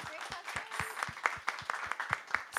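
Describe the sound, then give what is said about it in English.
A crowd applauds steadily, dense overlapping claps forming a continuous crackling patter at moderate volume, with a few sharper individual claps standing out throughout. “All right, everyone, a round of applause, please.”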